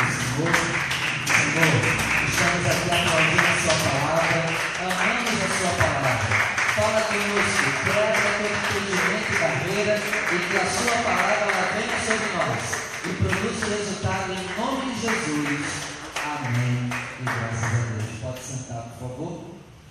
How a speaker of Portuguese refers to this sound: Eu peço que você feche seus olhos, desocupe as suas mãos e com muita alegria vamos dar uma linda salva de palmas à palavra.